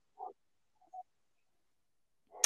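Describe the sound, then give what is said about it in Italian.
A dog gives two short, faint yips or whines, well spaced apart amid quiet, followed by a brief louder noise at the very end. “Come sentite anche il cane vuole partecipare al podcast oggi.”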